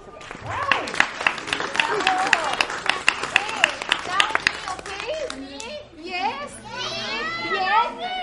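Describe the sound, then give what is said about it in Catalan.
A group of children clap loudly and rapidly while excited high-pitched shouts and chatter rise over it; the applause thins out after about five seconds and the children's voices carry on. “Un fuerte aplaudimiento.”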